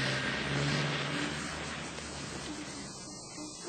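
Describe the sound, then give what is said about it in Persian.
A milk truck's engine rumbles steadily as it drives along, a low continuous drone with road hiss on top that eases slightly before a sudden loud burst at the very end. “گربه ها با موش کوچولو بیدرنگ عقب ماشین پریدن و از شانس خوبی که داشتن ناگهان متوجه شدن که سوار یک کامیون حمل شیر هستند”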